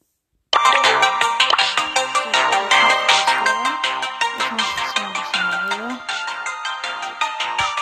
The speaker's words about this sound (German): ich gehe jetzt mal in Brawl Stars rein. Ich mache mal für euch den Sound an